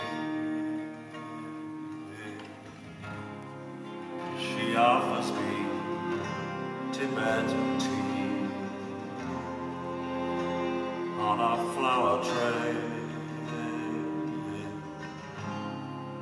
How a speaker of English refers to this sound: the two of them sang a version of that song that's live. And actually, you can hear it here.